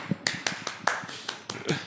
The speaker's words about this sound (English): Yeah. Well, let me also clap.